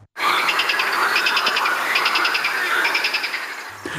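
A loud, dense chorus of male frogs calling to attract mates, with rapid pulsed trills repeating in bursts over a constant wall of croaking, continuous throughout and with no voices.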